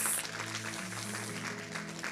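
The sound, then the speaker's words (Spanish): A crowd claps steadily in a sustained wash of applause for Jesus, fairly loud and continuous throughout, with a faint low musical hum underneath. “Un aplauso para Jesús.”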